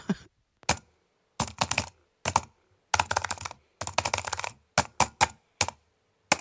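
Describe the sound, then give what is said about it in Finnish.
Typing on an Apple laptop's butterfly keyboard: crisp clicky keystrokes in quick bursts broken by short pauses, with no voices and nothing else in the background. “Pitäisikö mun nauhoittaa tähän ihan niinku tuota Applen näppäimistöä hiukan?”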